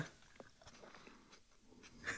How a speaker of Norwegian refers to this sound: Han tygger for det her.